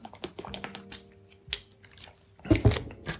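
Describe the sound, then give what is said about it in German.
Someone drinking organic carrot juice: soft, scattered wet mouth clicks and sips, then a cluster of louder gulping swallows toward the end, with no talking. “Moment, ich trinke mal ganz kurz was.”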